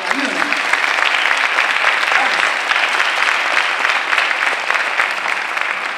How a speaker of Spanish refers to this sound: Si usted está agradecido, aplauda a Jesús fuerte, por favor